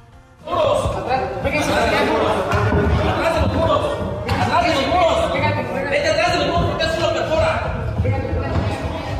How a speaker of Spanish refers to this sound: Acaban de sonar balazos, nos acaban de decir a todos que nos tiramos al suelo.